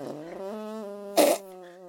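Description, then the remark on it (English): A fairly loud arm fart that drones with a steady, buzzy, trumpeting tone like an elephant for almost two seconds, broken by a brief sputtering burst near the end. “I think I sound like an elephant.”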